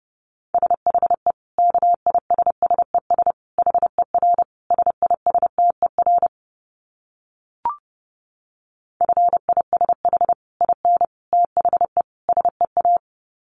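Rapid Morse code at 30 words per minute: a single steady mid-pitched tone keyed into quick dots and dashes, pausing midway with a brief click before the keying resumes. No voices.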